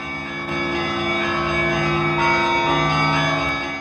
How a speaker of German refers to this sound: Aber vor allem diese besondere Atmosphäre. Hier hör mal die Glocken der großen russisch-orthodoxen Kirche.